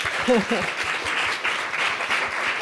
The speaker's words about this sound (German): Ja, Applaus für deinen Papa.